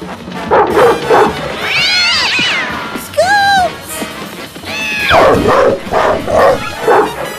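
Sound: dog barking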